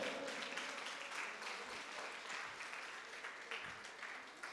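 An audience applauds steadily, many hands clapping in a dense, continuous patter that holds at an even level throughout, with faint voices and cheers mixed into the crowd noise. The audience is applauding the King in response to a call from the preacher.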